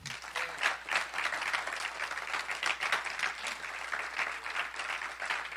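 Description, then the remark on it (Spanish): An audience applauds Christ steadily, dense overlapping claps at a fairly even level, with no speech over it. “¿Cuánto le dan un aplauso a Cristo?”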